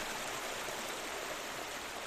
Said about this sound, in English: It might feel strange to listen to a river for half a minute or more, but maybe this is only because we don't listen enough.